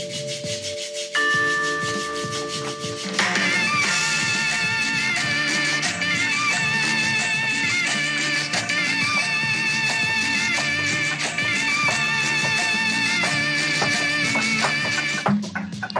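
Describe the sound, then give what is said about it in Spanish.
A sonidero-style cumbia track with psychedelic effects opens on sustained organ-like tones, then a full band enters with a steady bass groove, scraping percussion and warbling synth lines, loud and continuous. “resume bastante bien este, este rollo de efectos psicodélicos, ¿no crees?”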